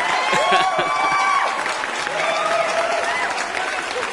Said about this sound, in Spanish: Aplausos porque ya se definió, es el, el alternativo.